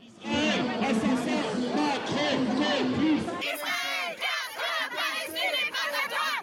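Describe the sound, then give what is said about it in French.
A protest crowd chants traditional pro-Palestinian slogans in loud, rhythmic unison, many voices shouting together with a steady cadence; midway the chant shifts to a higher, more clipped pattern of repeated phrases. “La foule réunie a repris les traditionnels slogans pro-palestiniens.”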